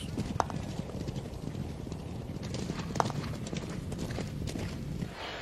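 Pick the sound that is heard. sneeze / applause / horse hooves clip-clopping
horse hooves clip-clopping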